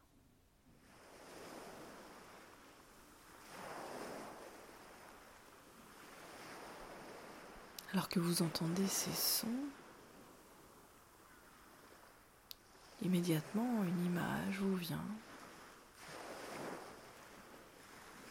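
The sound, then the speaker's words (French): Ocean waves wash onto a beach in slow, rolling swells, each surge rising and fading every few seconds, with two bursts of loud, bird-like cries and a soft voice speaking over them. “Vous mettez des images sur ces différents sons, sur le son de l'eau, peut-être même des sensations.”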